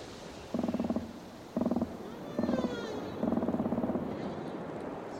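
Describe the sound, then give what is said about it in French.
Humpback whale song: four pulsing, buzzy low moans in steady succession, with faint rising whistle-like cries drifting above them over a soft, hissing underwater background. No one speaks. “une baleine à bosse.”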